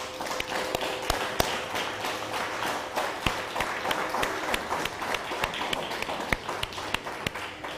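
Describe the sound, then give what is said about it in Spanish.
A crowd applauds steadily for several seconds, a dense wash of clapping with occasional sharp, louder individual claps standing out, sustained at an even level throughout with no talking. “Un fuerte aplauso a todas las naciones.”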